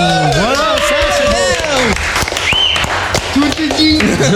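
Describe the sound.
Loud audience applause with scattered claps, mixed with whooping, cheering voices that rise and fall throughout.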